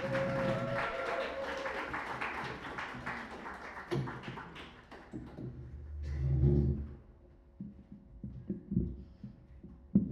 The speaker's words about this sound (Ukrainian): Тому давайте їх зустрінемо оплесками.